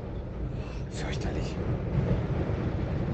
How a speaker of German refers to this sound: Oh Gott, das ist wirklich furchtbar windig. Ich warte noch einen Moment. Wenn das jetzt, wenn diese Gondel jetzt abstürzt, dann drücke ich in dem Moment auf Senden.